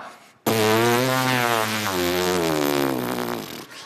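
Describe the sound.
A raw, loud buzzing drone lasting about three seconds from human vocal folds vibrating without the throat to shape them, rich in harmonics with a slightly wavering pitch, no shaping into speech; abrupt onset and fairly sudden stop.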